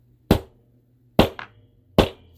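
A gavel bangs three times at a steady, unhurried pace, each strike a sharp, loud wooden crack that dies away quickly. A faint rebound tap follows the second blow. No one speaks.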